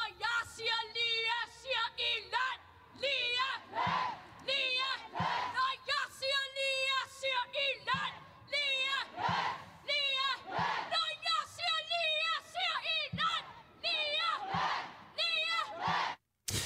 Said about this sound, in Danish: Ja, så lød det altså til sygeplejerskernes demonstration øh, foran Christiansborg